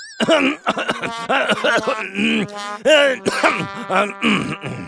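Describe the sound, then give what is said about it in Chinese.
A porcupine character breaks into a sudden fit of coughing while hastily making a shushing gesture: a rapid string of loud, throaty, voiced hacks with groaning pitch swoops, running almost nonstop with no words spoken. “豪猪猛地咳嗽起来，一边咳嗽一边着急地做了一个“嘘”的手势。”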